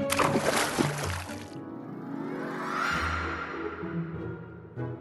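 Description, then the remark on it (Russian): A frog jumps and splashes into water, a bright splash lasting about a second and a half, followed by softer sloshing and rippling as the water settles. “И лягушка прыгнула в воду.”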